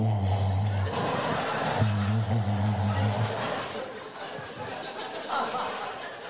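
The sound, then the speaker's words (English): A voice imitates a tumble dryer with towels, making a low droning hum with a loose rolling rhythm for a few seconds, then breaking into softer breathy, chuckling noises. “Maybe the sound of the dryer with the towels.”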